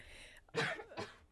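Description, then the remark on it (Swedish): A fairly loud sneeze: a sharp breathy burst followed by a shorter second one, with a faint hiss before it and no talking. “Prosit.”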